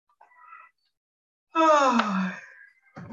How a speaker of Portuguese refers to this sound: Fazendo uma respiração profunda.